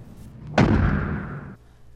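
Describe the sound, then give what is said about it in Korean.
A wooden front gate is smashed in from outside at night with one sudden, loud crash: a heavy thud followed by about a second of rough, splintering noise that stops abruptly, with no voices. “대문 밖에서 누군가의 험악한 목소리와 함께 갑자기 꽝 하며 대문 부서지는 소리가 났습니다.”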